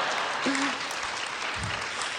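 A show audience claps and cheers for 20-year-olds in a dense, steady wash of applause, with a few short vocal whoops rising briefly above the clapping.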